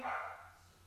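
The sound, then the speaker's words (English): A single short dog bark, somewhat muffled, fading quickly into quiet with a low hum underneath; the dog is defending the house because someone came to the door. “He, well, he's defending the house because someone came to the door.”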